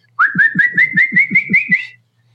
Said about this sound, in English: Now, some people, whenever they blow a whistle, they just kind of go, and that's cold air. But if you're actually taking and blowing a whistle like normal, you know, most everybody does